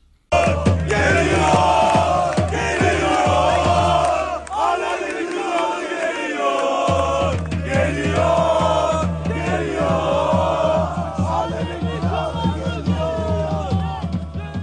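A large crowd of Turkish football fans at the Olympiastadion chants loudly in unison, their massed voices rising and falling in a steady, rhythmic song with a deep drum-like pulse underneath, which briefly drops out midway.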